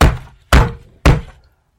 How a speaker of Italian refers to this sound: Poco dopo qualcuno bussò alla porta gridando: